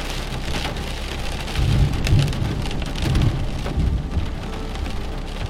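Heavy rain pelts a country house and its window in a steady, dense patter, with low rumbling swells underneath and no voices.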